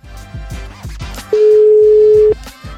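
A telephone ringback tone plays as a single steady, mid-pitched beep lasting about a second, loud and unbroken, with rhythmic music heard before and after it.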